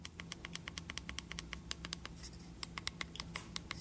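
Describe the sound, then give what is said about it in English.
Rapid, irregular plastic clicks from the four small buttons around the record button of a Zoom portable audio recorder being pressed repeatedly, crisp, about two dozen taps over a faint steady background hum. “those are the four buttons around the record button.”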